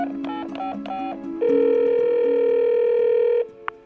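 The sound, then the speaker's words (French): Telephone sounds: a quick run of short electronic beeps like dialing, then a loud, steady telephone tone holding for about two seconds before cutting off. No one speaks. “Finalement, après près de 8 ans de traque, Marcel Barbeau est arrêté le 14 décembre 1976 grâce à un coup de téléphone anonyme.”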